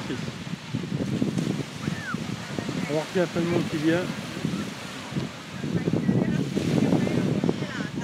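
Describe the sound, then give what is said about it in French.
Outdoor seaside ambience at the beach: a steady wash of wind and surf noise runs throughout, with a man talking over it and a few faint high chirps in the middle. “Petite journée à la plage, ça détend quoi.”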